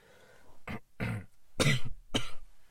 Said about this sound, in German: Ich muss, mir mal, ich muss mich mal kurz räuspern, es tut mir extrem leid.